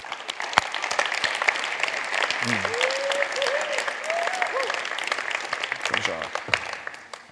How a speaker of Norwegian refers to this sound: Så skal vi få lov å ønske opp på scenen en, den siste personen som jeg hadde lyst til å, eh, å presentere for dere. Kan du komme opp? Vi klapper fram